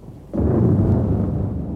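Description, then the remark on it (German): A sudden, loud thunder clap breaks in after a brief quiet moment, then rolls on as a deep, sustained rumble that slowly fades. No voices are present. “Und dann haben wir halt die Hebung und dann entstehen die Gewitter.”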